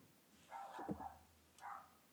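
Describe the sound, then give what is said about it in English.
A dog barks a few times in short bursts, a cluster of quick yelps followed by one more bark after a pause, with no talking. “oh, there's the dog are you kidding hold on one second”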